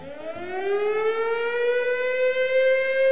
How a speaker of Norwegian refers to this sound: flyalarmen med sine forferdelige sirener.